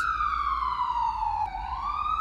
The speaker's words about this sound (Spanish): Una ambulancia nos sobrepasa, cegándonos. Las luces rojas y azules se reflejan en los cerros.